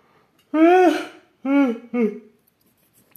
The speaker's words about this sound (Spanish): Maldita sea, no sé, una disculpa por tantos bostezos.